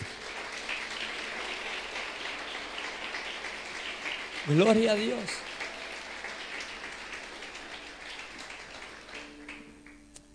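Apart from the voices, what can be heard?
audience applauding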